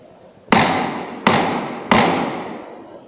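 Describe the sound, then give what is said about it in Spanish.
Three sharp metallic knocks from the knocker strike the procession float of Jesús Cautivo, the first call before the float's first lift, evenly spaced about seven-tenths of a second apart, each loud and ringing out before slowly fading. No one speaks. “Me voy a ir acercando yo al paso porque se intuye la primera llamada. En efecto, escuchemos.”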